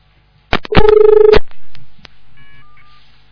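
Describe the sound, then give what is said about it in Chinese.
A burst of harsh electronic telephone line tones from a phone that was not hung up properly, a steady buzzing tone with sharp clicks around it, then fainter intermittent beeps from the off-hook line, with no one speaking. “嗯，电话没挂好的。嗯，怎么进不来了？”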